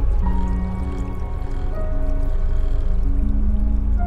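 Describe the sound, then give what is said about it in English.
Continuous trickling and splashing water from a small fountain, steady and fairly loud throughout, with a faint low tonal hum running underneath. “the only advice that i have for people who want to deal with the hum is to mask it with another less obnoxious noise such as a water feature or a bathroom fan”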